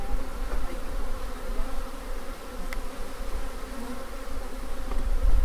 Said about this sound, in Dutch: Nou, Bijen die, die zijn nog heel duidelijk te horen en ze vliegen ook om mijn oren, om mijn hand en om de microfoon.